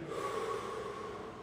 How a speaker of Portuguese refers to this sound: você inspira e respira mais forte. Inspira três vezes. Respira.